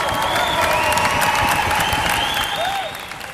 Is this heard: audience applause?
yes